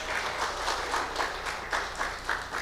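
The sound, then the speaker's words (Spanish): Steady audience applause at a church worship service, welcoming back a returning woman of the audience: a dense wash of many hands clapping at a fairly even, moderate loudness for a few seconds, with faint rhythmic pulses and no voices over it. “Él un fuerte aplauso a la hermana.”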